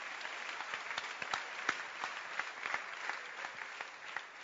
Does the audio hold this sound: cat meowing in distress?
no